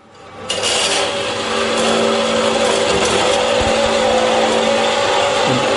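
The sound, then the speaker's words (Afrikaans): A fine-toothed saw blade cuts slowly through hard steel along a marked line, sawing out the shape of a knife, with oil on the blade, in a steady, continuous rasping grind with a faint mechanical hum beneath, loud throughout. “Dus nou so jy saag maar al op die lyn wat jy gemerk het, die vorm van die mes saag jy maar uit.”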